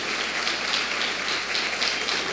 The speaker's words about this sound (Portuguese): Deus falou contigo nessa noite? Aplauda a palavra de Deus.